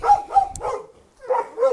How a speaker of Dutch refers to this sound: Je hoort hoe gezellig het hier in de buurt is, hè? Met alle honden en zo, alle kindjes. we wonen best wel ver uit elkaar met alle huizen. Maar de huizen waar we langskomen zijn echt super druk. En gaan alle kinderen en honden gaan er los.